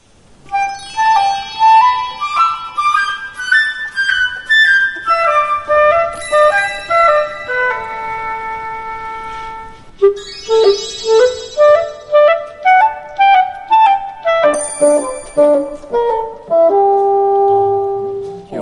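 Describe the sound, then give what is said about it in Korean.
Solo woodwind instruments (flute, oboe, clarinet and bassoon) play short melodic phrases in turn, each voice taking up a bright, lyrical line with distinct tone colors, clear with no talking. “그래서 보통 아름답고 예쁜 멜로디를 작곡가들이 목관악기에 배정할 때가 아. 많죠. 하나하나 아, 연이어서 들어보시겠습니다.”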